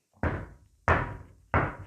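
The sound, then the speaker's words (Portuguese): Three heavy knocks on a door, evenly spaced with a short pause between each, every blow landing with a deep thud that rings out briefly. No voices accompany them. “Será o lobo quem bate assim?”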